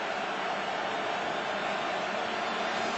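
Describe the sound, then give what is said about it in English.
A dense, steady roar from a huge stadium crowd at a Canadian Football League game fills the whole moment, loud and unbroken, with no single voice standing out from the wash of noise. “This crowd is loud.”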